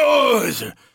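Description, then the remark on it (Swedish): An aging man's low, drawn-out groan, fairly loud, sliding downward in pitch before trailing off into a faint breathy exhale, made as he sits down. “och du vet, man börjar få sådana här konstiga gubbljud när man ska dricka kaffe.”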